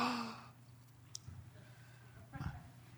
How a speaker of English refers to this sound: Big gasps, right?